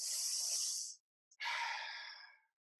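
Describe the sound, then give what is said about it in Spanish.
A single deliberate deep breath demonstrating a breathing exercise for calming an anxiety attack: a sharp, airy inhale lasting about a second, a brief pause, then a longer, slowly fading exhale through the mouth. No one speaks. “La respiración es la mejor de todas, honestamente el, aprender a hacer las respiraciones de”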